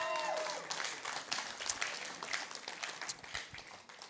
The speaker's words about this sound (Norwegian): Vi gir dem en god applaus til mens de setter seg ned.